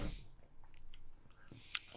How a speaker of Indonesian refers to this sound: Ini gue minum dulu nih karena barusan gue campurin yang menggonya di bawah nih. Ya. Bulir-bulirnya. Ngeri emang teguk nih. Bismillah, coba ya. Hmm.